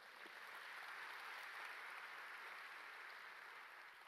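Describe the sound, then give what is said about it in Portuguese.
A crowd of people applauding together in praise of the Lord, a dense, steady wash of clapping that holds at an even level for several seconds without any voices on top. “Quantos podem aplaudir o Senhor por isso?”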